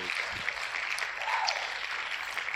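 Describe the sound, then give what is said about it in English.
A crowd applause sound effect: a dense, steady wash of clapping and cheering that stays loud and full for a couple of seconds without pause, with no one speaking over it. “Wow, that crowd loves you,”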